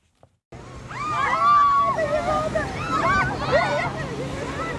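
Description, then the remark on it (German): Steady roar of ocean surf washing in, filling the background, while several tourists' voices chatter and call out over it in a lively beach atmosphere on the beach at Puerto Escondido. “Die Touristinnen und Touristen am Strand von Puerto Escondido sind durch die Bank entzückt.”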